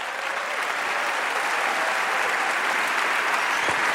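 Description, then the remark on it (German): An audience claps steadily, a dense wash of many hands with no gaps or clear individual claps, sustained at an even, fairly loud level for the whole stretch, with no speech. “Ihr dürft jetzt nicht klatschen.”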